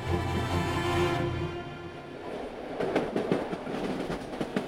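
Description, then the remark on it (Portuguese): A train travelling north through Italy past Savona, Imperia and Ventimiglia toward the French border rumbles along the rails with a steady low drone, then a rhythmic clickety-clack of wheels over track joints emerges, loud, with no voices. “O trem continua subida no mapa da bota.”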